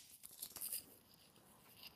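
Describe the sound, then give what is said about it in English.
A deck of tarot cards is shuffled, a quiet run of crisp papery rustles and flicks that bunch together early on, then settle into softer sliding, with no voices. “And um, let's see, let me um, shuffle a bit.”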